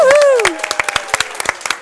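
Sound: warm applause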